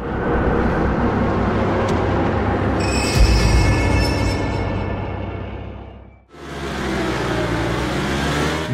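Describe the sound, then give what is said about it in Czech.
A racing motorcycle engine roars loudly during a race, holding a steady high rev, then briefly drops off before revving hard again with a climbing pitch. “Neuvěřitelná péče o detail nekončí u dokonalosti věrných reprodukcí, chování motorky během závodu ani dechberoucích vyhlídek.”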